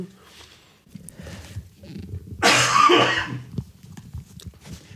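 A single harsh, raspy cough bursts out loudly at close range, preceded by softer breathy throat sounds and low rumbling background noise.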